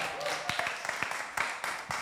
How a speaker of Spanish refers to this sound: Un aplauso para los que nos escuchan por Spotify también.